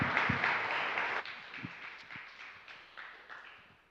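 A crowd applauds, a dense wash of many hands clapping that starts loud and then thins out, trailing off into scattered, uneven claps as it fades.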